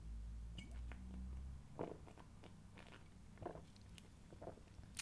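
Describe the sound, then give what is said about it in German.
Someone takes a drink: soft wet sipping and swallowing noises, a few short mouth clicks and gulps spaced over several seconds, quiet and without talking, over a low hum at the start. “Okay, und ich trinke jetzt noch einen Schluck und dann Spitz mal schon deinen Bleistift, es geht gleich los.”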